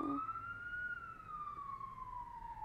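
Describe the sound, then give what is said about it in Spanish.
A single siren tone sweeps slowly up and then gradually falls, steady and fairly faint, with low road rumble underneath, like an emergency vehicle passing outside. “Ay, no sé si se vaya a escuchar la sirena, no sé quién murió.”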